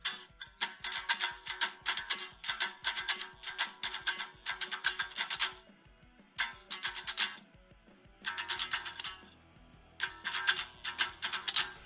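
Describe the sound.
Rhythmic tapping imitates a band's mashup of two rock songs played at the same time, beating out a driving rock-riff pattern in quick bursts separated by brief pauses, moderately loud, with no one speaking.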